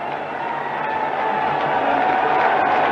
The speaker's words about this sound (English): You're hearing fans applaud the decision as they have heard it, I guess, on radios or maybe tiny TVs.